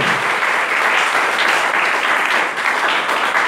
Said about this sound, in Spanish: Denle el aplauso al Señor, por favor, esta noche.